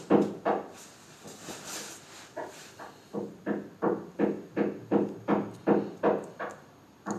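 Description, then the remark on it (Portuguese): A neighbour hammering while doing DIY: a steady series of about fifteen dull, woody blows struck in an even rhythm, moderately loud and slightly muffled, with no talking. “É mesmo martelado, é mesmo martelo.”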